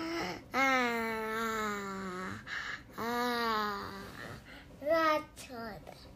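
A young child's high, drawn-out vocal sounds rise and fall in sing-song babbling as the child sings at night before sleep, several long wavering notes followed by shorter bursts, with no adult talking over them.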